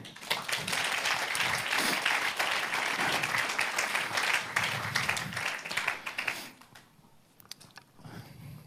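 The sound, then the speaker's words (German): A crowd claps in a dense, steady burst of applause for about six seconds, then it thins out into a few scattered claps before fading. “Ein herzliches Applaus bitte.”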